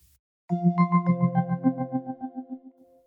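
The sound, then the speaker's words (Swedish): An outgoing phone call's ringing tone: a bright electronic tone pulsing rapidly for about two and a half seconds, gradually fading, with no one speaking. “låt oss ringa upp eh, Johan Johansson”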